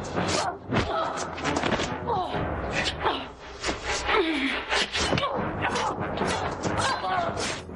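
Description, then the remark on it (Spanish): Ilsa and Winter in a knife fight: a scuffle of repeated thuds and sharp impacts, with strained grunts and gasps mixed in, keeping up a busy, irregular rhythm throughout, loud and continuous like bodies clashing. “Ilsa y Winter siguen peleando a cuchillo.”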